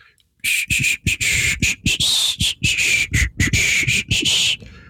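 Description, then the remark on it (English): A person does a breathy whisper-hum, known as whisper humming or shumming, while working on a project: a hissy, half-whistled tune mixed with a low hum, delivered in a string of short phrases broken by quick gaps for about four seconds. “So it's sort of it's like a it's like a it's like a shush but you're humming and you're making it's like a semi whistle hum”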